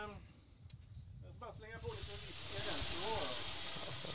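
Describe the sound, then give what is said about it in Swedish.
A loud, steady sizzling hiss surges up partway through and holds as grill flames flare up over frying onions, with people talking over it. “Oj, det flammar upp rejält där borta vid lökarna just nu.”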